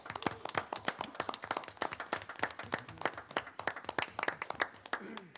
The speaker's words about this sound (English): Can we give him a round of applause, please, for his service?